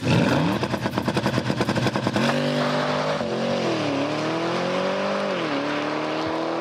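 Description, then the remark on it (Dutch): A sports car's launch-control start: a loud, rapid stuttering burble as the engine is held at high revs, then a hard surge of acceleration, its pitch climbing and dropping through gear changes. “Launch control.”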